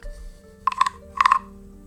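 Two short, rasping croaks of a frog, each a quick pulsed burst, the second following about half a second after the first, clear over a quiet background hum.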